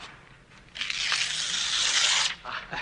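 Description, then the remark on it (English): A page rips out of a book in one long, bright tearing sound of about a second and a half, starting with a short crackle and ending with a brief papery rustle. “Rip out the entire page.”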